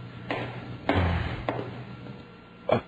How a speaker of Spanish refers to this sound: ¿Oíste, hijo? Alguien se paró ahí por fuera de la puerta. Sí, papá. Pero en los pasos de una mujer.